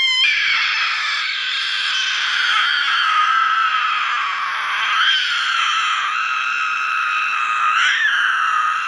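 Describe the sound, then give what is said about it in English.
A voice imitates the scream of the Rakshasi demoness as Lakshmana chops off her nose: one long, shrill, wavering shriek held for nearly nine seconds, loud, with pitch swells midway and near the end. “And then, a uh, Rak- then the Rakshasi screamed, ah!”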